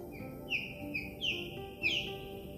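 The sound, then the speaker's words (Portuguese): An osprey in Portugal calling, giving a series of about five sharp, high whistled chirps in an uneven rhythm, clear over a steady low outdoor rumble. “Agora, as águias pesqueiras voltam a poder ser vistas e apreciadas.”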